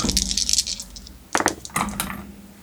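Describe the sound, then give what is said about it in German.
Dice being rolled for a melee and ranged combat attack in a game: a quick flurry of hard, clattering clicks, then a couple of sharper tumbling bursts as they settle. Crisp and fairly loud, with no talking. “Okay, dann würfel ich mal.”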